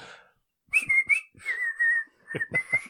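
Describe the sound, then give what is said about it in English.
A person whistles a short melodic tune, clear sustained tones broken into a few notes with breathy onsets, after a brief moment of silence. “That was a terrible joke, but you might have recognised the tune I was attempting.”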